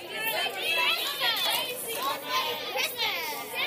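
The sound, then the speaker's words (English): A young crowd shouts out all at once what they are looking forward to in the holidays, many high-pitched voices overlapping into a loud, continuous jumble where no single word stands out. “What are you keen for? Yell some stuff out.”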